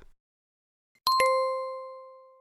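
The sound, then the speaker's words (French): A smartphone Facebook notification alert chime plays alone: two quick, bright tones in succession, the second ringing out clearly and fading slowly over about a second. “Il va le faire avec une alerte Facebook sur mon sel.”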